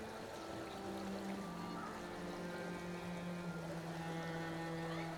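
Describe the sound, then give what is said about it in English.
Steady, continuous rush of river water flowing past under a fir tree whose branches dip into the water, accompanied throughout by a low, droning motor hum, with no pauses or distinct splashes. “And the river passes underneath those green fingers”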